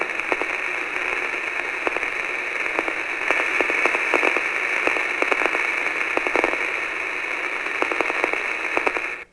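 Steady hiss of radio static, heard while listening for a faint beep, fills the whole stretch, peppered with scattered sharp crackles and pops. No voices or distinct tones stand out, just continuous, fairly loud noise.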